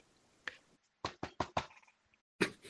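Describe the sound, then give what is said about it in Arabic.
Sharp knocks on a studio door arrive in irregular bursts: a single rap, then a quick cluster of four, a pause, and one more loud knock, with no voices. “وبينما وبينما هو مندمج في الترتيب ويستمع آه، ويستمتع بسماع الموسيقى سمع صوت دق متقطع على الباب”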